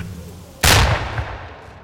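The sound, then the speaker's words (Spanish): A single loud gunshot cracks out suddenly after a quiet moment, its sharp blast trailing into a rumbling echo that slowly fades, fired at fleeing young people on Utøya, Norway. “El ruido de cada disparo los hace pensar en una sola cosa sobrevivir.”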